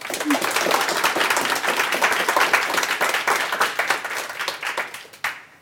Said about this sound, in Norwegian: Applaus til panelet vårt, da, folkens.